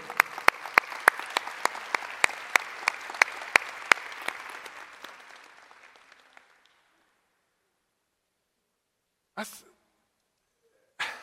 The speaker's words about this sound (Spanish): Pero me gustaría que diéramos un fuerte aplauso a todos los voluntarios que están sirviendo hoy.